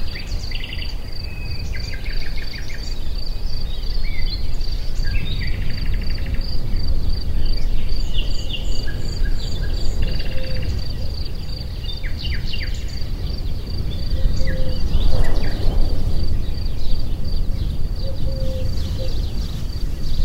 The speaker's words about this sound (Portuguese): Ouvimos os sons do jardim, enquanto a tarde vai começando a cair